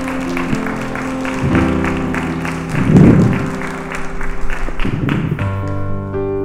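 An audience applauds with dense, steady clapping over sustained musical tones. The applause swells briefly in the middle and thins out toward the end.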